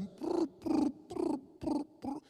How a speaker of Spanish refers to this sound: Oiga eso. Usted ha oído las, palomitas,